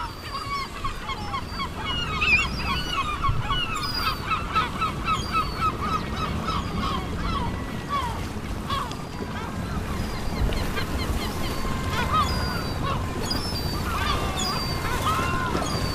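Seagulls call again and again from far off at a port on the Cantabrian coast on a spring morning at dawn, their cries scattered across a steady low rumble of harbor water and ambience, with no one speaking.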